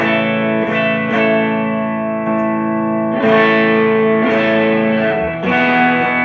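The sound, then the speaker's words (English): An electric guitar played through a Westwood transparent overdrive pedal into a clean amp, ringing sustained chords with a warm, lightly driven edge, restruck every second or so, loud and steady with no talking. “The Westwood is a, uh, like a transparent overdrive.”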